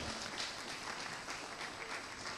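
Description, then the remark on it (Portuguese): An audience applauds God for the life of Joseph in a dense, steady wash of many hands clapping at once, sustained at an even loudness throughout with no voices standing out. “Aplaude a Deus pela vida de José, aplaude.”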